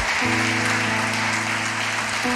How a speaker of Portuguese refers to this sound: Pode aplaudir o Senhor. Pode aplaudir mais. Isso, aumenta o volume desse aplauso.